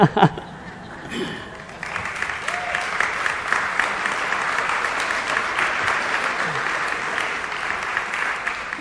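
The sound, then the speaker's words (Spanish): A brief voice opens, then a church audience in Ensenada breaks into steady applause, a dense, continuous patter of clapping that holds at an even, fairly loud level until the end. “Y aplaude una persona.”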